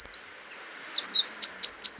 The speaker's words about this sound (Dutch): Ik wilde nog een hele leuke laten horen. Het winterkoninkje. Jij omschrijft hem in je boek als een wekkertje.